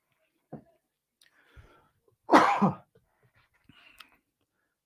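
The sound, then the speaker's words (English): A brief throat-clearing sound, then one loud, harsh cough, followed by a few faint clicks and breaths. “One second, guys. I got a cough.”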